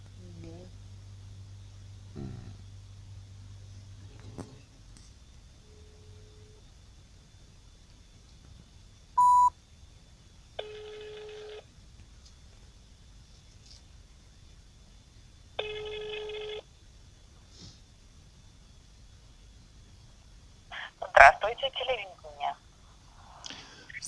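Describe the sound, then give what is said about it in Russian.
A low dial tone hums as a caller phones the Biysk media group from another phone, followed by a quick beep of dialing, then two long buzzy phone rings separated by silence, and a burst of brief electronic tones at the end. “С другого телефона звоню.”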